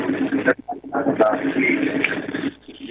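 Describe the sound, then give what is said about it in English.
A radio plays in a caller's background on a phone line, its muffled, tinny voices running continuously at moderate volume without clear words, with a few brief sharp clicks. “Can you turn off your radio, please, or whatever you got on?”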